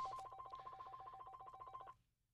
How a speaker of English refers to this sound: As you can hear, the the ringer.